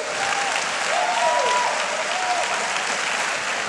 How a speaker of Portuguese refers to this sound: Então aplauda, faz alguma coisa se caiu a ficha, se entendeu?